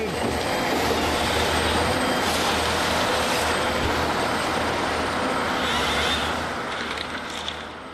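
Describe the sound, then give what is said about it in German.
Forestry harvesters, huge machines rented across Germany by a Tesla subcontractor, roar steadily while felling trees after nightfall with floodlights on. A dense, rumbling engine din with grinding and hissing on top, a brief higher whine near the end before the noise eases slightly. No one speaks. “Das Subunternehmen, was Tesla da angestellt hat, hat tatsächlich in ganz Deutschland diese sogenannten Harvester angemietet. Das sind riesige Maschinen.”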